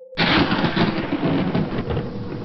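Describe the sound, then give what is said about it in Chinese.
A sharp crack of thunder, with lightning flashing across the sky over a school dormitory, bursts in after a brief low hum, then rolls on as a loud, sustained rumble with heavy rain-like hiss throughout, no voices present. “一道闪电。划过天空，白光闪在宿舍窗户上”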